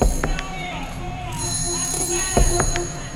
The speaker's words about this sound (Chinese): 二层小楼的别墅，电话铃声来自楼下的客厅。慢慢的下楼，电话铃声越来越响，却没有人去应答。